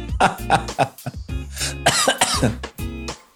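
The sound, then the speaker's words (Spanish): A man coughs in a fairly loud run of coughs in quick succession, several short harsh bursts followed by rougher, throaty voiced coughing that trails off near the end. “Hasta me dio tos.”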